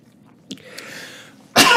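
A single loud, harsh cough bursts out at the end, preceded by a brief soft catch and a breathy inhale. No one speaks.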